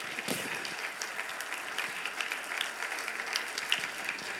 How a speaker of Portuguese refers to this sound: Dê para Jesus uma forte salva de palmas.